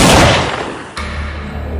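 pistol gunshot

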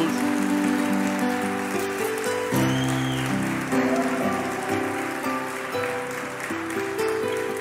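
audience applause

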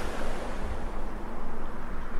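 calm sea waves

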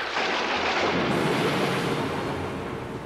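thunder

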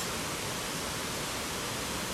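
flowing water

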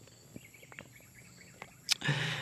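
birds chirping

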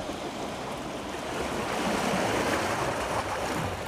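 sea waves

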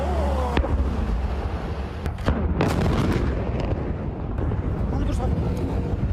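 explosions

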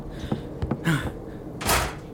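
door closing

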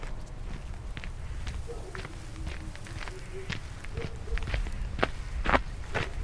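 footsteps approaching

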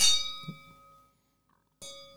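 wine glasses clinking

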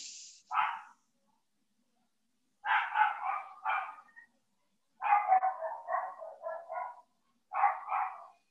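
dog barking

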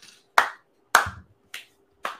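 hand clapping

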